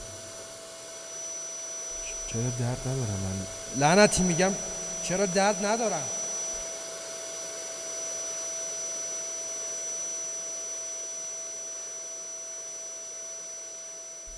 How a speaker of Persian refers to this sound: پایان باز با صدای جاروی بش لعنتی 1600 وات لعنت به هرچی آلمان آلمانیه که هم فلسفهشون فلسفه است هم جاروبرقیشون جاروبرقیه